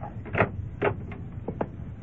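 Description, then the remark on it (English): A door leading to stairs going down is opened: a quick series of latch clicks and rattling knocks, about five short wooden and metallic bumps over two seconds, with no voices. “Now, open the door.”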